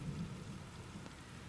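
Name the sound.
rain pattering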